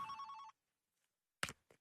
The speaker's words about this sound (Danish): Nu, nu ringer den igen. Den har kimet hele dagen.